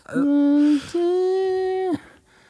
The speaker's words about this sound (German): Ah, jetzt baut sich das langsam auf. so eine Feedback-Gitarre.